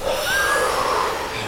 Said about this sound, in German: Dann übt Agnisara zur Aktivierung des Feuers im Bauch. Agni heißt Feuer. Feuer steht auch für Begeisterung. Agni steht auch fürs Verdauungsfeuer, steht auch für viel innere Kraft. Atmet ein und atmet durch den Mund nach unten aus.